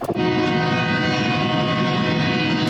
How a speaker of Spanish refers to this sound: Comienzan a rodar de nuevo los trenes de carga y lo hacen con miles de migrantes montados en los contenedores.